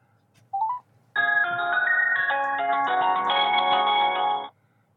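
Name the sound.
phone call ringback tone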